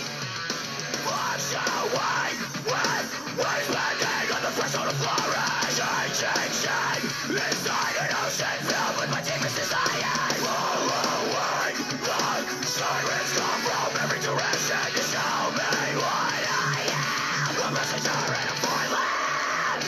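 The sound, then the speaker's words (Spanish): A small, high-pitched scream rises out of a dense, loud wall of crowd noise and yelling that runs without pause for the whole stretch, heard in a recording being played back. “Bueno, el gritito sí se escucha acá, pero a ver, a ver qué pedo, a ver si le hayan una diferencia, no sé.”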